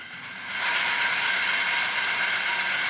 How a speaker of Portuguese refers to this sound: a matraca de roda, uma engrenagem que possui um disco de madeira com as bordas dentadas, que ao girar produzem um som